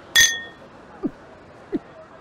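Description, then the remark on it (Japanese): Glasses clink together once in a toast celebrating someone's new start, a bright ring that fades within half a second, followed by two soft, short low sounds against a quiet background. “それじゃ、お前の新しい門出を祝して、乾杯”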